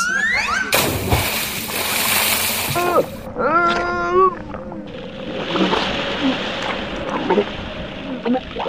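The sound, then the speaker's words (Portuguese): A heavy splash as Jonah is thrown overboard from a ship into the sea during a storm, a loud burst of churning water, then brief warbling cries and a steady wash of waves rolling on. “Jonas foi lançado ao mar e imediatamente a tempestade acalmou.”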